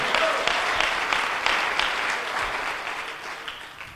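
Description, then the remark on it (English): An audience claps their hands to the Lord in a steady, dense wash of applause, many overlapping claps sustained throughout without any talking, gradually thinning slightly toward the end. “Oh, somebody clap your hands to the Lord today.”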